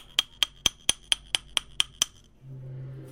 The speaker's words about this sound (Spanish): Ya lo metemos o lo doblamos, recuerden que ya lo doblamos y buscamos la medida, si lo quieren al 7, al 8 y agarramos con el martillo y ya lo podemos ir golpeando hasta que dé, vamos a ponerlo al 8